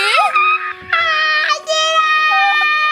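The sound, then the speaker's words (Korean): A baby girl cries loudly in long, high-pitched wails, three sustained bursts separated by short breathy pauses, with no other voices. “아 울지마 울지마 왜 이렇게 울어 울지마 울지마 울지마”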